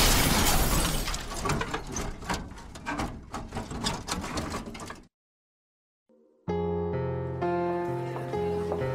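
A loud car crash as a speeding car, out of control despite swerving, hits: a heavy crunching impact with glass shattering and scattered debris for about five seconds, cut off by silence, then a sustained ringing musical chord fades in. No one speaks.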